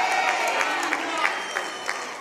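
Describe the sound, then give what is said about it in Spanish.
An audience applauds, a dense, steady wash of many hands clapping at moderate loudness for the whole clip, with faint crowd voices mixed underneath. “Dale un aplauso a eso!”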